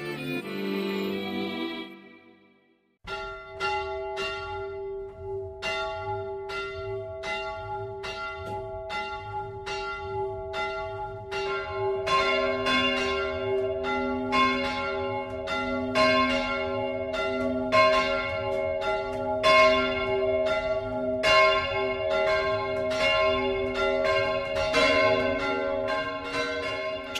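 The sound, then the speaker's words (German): Church bells in Streitberg, Upper Franconia, Germany, peal continuously for the Sunday noon ringing, several bells striking in overlapping rhythmic strokes with a steady hum beneath, loud and sustained after a brief fading sound at the start; no one speaks. “präsentiert das sonntägliche 12 Uhr läuten.”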